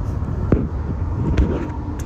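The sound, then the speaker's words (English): A steady low rumble fills the cabin of a moving car, with a few soft knocks and clicks popping up now and then; nobody speaks. “All right, so that's all from the car.”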